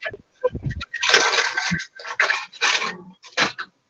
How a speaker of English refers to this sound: Oops, oh, who's loading their dishwasher? Not me. I can come load mine.